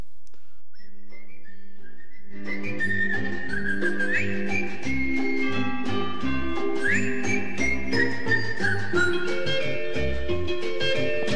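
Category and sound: sound effect, song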